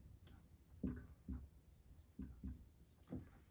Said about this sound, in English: For those of you listening, I'm drawing on a board and I just wrote the word purpose.